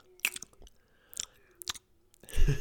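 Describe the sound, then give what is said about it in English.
Wet mouth smacking and sticky chewing from eating goldfish crackers stuck to the inside of the mouth, several sharp clicks spaced apart with quiet gaps, ending in a louder burst of crunchy mastication right at the mic. “you know that sound that's just like when you got like, when you just eat like goldfish or something that like sticks to the inside of your mouth and it's just”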